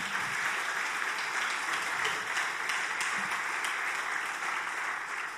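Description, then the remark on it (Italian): Sustained audience applause offered to the Holy Spirit, a dense steady wash of many hands clapping at fairly even loudness for several seconds, with no speech over it. “Facciamo un applauso allo Spirito Santo.”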